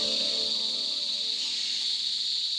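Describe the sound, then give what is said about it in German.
Forest ambience filled with a steady, high-pitched insect drone, a continuous shrill buzzing chorus with faint lower hum beneath, unbroken and even in loudness throughout, with no voices. “Wir sind in einem Wald.”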